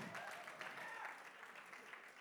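A steady wash of crowd applause, dense and even for a couple of seconds at a fairly soft level, with faint voices mixed in beneath the clapping.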